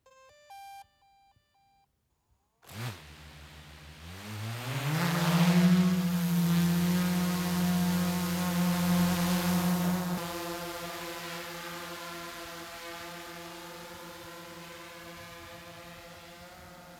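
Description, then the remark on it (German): A few short electronic beeps, then a drone's motors whir up in pitch and settle into a loud, steady, high buzz that continues throughout, easing slightly toward the end. No one speaks. “Ich sage Hallo und lasst uns doch einmal die Drohne abheben.”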